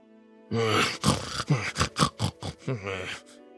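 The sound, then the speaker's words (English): A male voice grumbles in a run of low, annoyed grunts and mutters as he shoulders saddlebags. The sound is fairly loud, with a rough, pig-like snorting quality and no clear words for about three seconds. “Chupachi grumbled as he shouldered the saddlebags”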